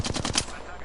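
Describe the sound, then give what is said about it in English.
A quick burst of about five video game gunshots fires in rapid rhythm, sharp and loud, then cuts off into a fading, hissy tail. “that was gunshots. I thought I heard footsteps”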